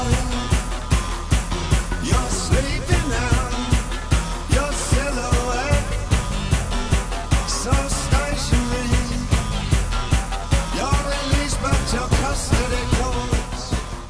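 A loud, driving rock track plays with a steady, pounding beat, dense distorted guitars and layered instrumentation filling the mix throughout, with no talking over it.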